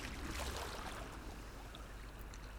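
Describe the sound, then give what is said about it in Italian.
A steady, soft wash of water from the slow waves of a calm sea gently lapping, with a continuous low rumble and no voices. “ora che il mare è calmo, ascolta il ritmo lento delle onde”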